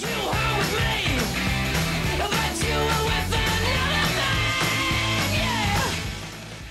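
A loud, driving garage rock song with punchy drums, distorted guitars and a shouted vocal, playing continuously at high volume before fading slightly at the end.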